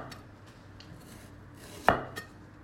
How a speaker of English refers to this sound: My grandma makes the best pork and ginger. Now I've been witness to her the, the days when she sits down to do this, which is that the ginger takes two hours to chop